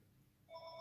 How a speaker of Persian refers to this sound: تلفن قطع بود ولی نمیدونم چرا بوق میزد باتریش تموم شده بود و این زنگ باتریش بود